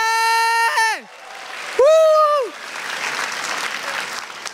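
Audience applause at a comedy show, a steady crackle of many hands clapping that fills the last couple of seconds, preceded by two loud, pitched, sliding cries that end with a downward swoop.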